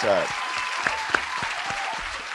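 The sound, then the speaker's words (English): A round of applause for Shannon Sharpe: dense, steady clapping from a crowd, fairly loud and sustained throughout, with a brief voice at the very start. “And I'm going to give you a round of applause.”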